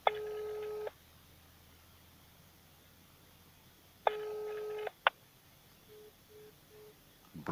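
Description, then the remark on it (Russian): A telephone line gives two long electronic tones a few seconds apart, then a quick run of short, evenly spaced beeps, the busy signal after a hang-up, heard alone over faint line hiss. “выбросили трубочку.”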